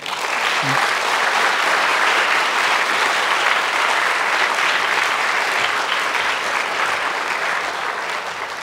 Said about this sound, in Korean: 좋은 말씀 들려주세요. 이렇게 환영의 뜻으로 크게 박수하시겠습니다.